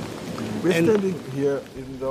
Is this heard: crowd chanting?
no